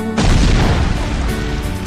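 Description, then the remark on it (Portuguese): A single loud cannon blast in a video game erupts abruptly and rolls on as a deep, roaring boom with heavy low rumble, filling the short moment with no voices present. “sai com medo do canhão.”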